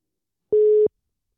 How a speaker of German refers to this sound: Und ich rufe den Eli jetzt oh ja, an. Der kommt nämlich per Telefon dazu.